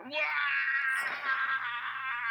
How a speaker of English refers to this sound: Scream in your ear because I know you like it.